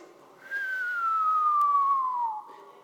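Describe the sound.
A person whistles a single long descending tone, imitating an incoming artillery shell fired from battleship cannons; it slides steadily downward in pitch for about two seconds, clear, with no talking.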